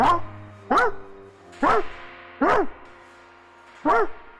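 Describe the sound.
A person mimics a dog, letting out five loud woofs at uneven intervals, each one a short rising-and-falling yelp with a brief pause between.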